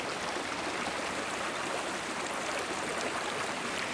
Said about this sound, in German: Ich höre vor allem das Plätschern des Baches und höre darin diese Melodie des Sommers.